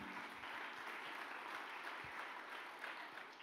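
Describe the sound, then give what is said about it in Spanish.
Sustained, loud applause from a crowd during a sermon, given for God as Father. The clapping is a dense, steady wash that holds at an even level throughout with no pauses. “Del otro aplauso fuerte a papá.”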